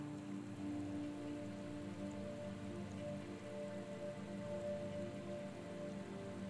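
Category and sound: nature, splashing water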